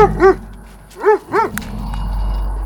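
A chained wolfdog barks furiously at its master, letting out about four loud, strained barks in uneven bursts with short pauses between them, and no one speaks.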